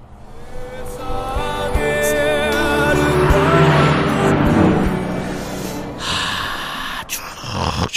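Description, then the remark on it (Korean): A car beside the listener's moving car speeds past, its roar swelling to a peak midway and then fading, with music playing in that car carried along in the noise. “옆에 차가 지나갑니다.”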